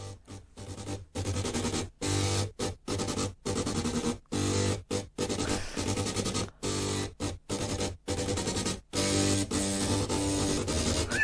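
A buzzy, mechanical melody played by eight floppy disk drives, their grinding tones stepping through a marching tune in sharp stop-start bursts, loud and close with no talking.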